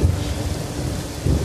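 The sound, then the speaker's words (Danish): Steady heavy rain hisses across the whole clip in cold weather while a deep, low rumble of thunder rolls underneath, swelling slightly toward the end. No one speaks. “Åh, jeg har selvfølgelig ikke taget regnjakken nu.”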